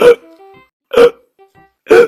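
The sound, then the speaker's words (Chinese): Three loud, voiced hiccups of a kitten and a puppy in a children's story, in a steady rhythm, roughly one per second, each a short sharp gulp, with faint high tonal squeaks in the gaps and no talking. “小狗和小猫同时使劲地捂住对方的嘴巴，没想到小猫和小狗的鼻子又同时打起嗝来，他们赶紧按住对方的鼻子，这时嘴巴又打起嗝来。”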